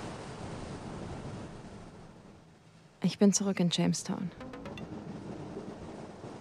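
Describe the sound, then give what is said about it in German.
Steady surf of the Atlantic Ocean washes continuously in the background beneath cliffs late at night, a broad rushing roar of waves with some wind, while a man speaks briefly midway over it. “Ich sitze hier gerade am Meer.”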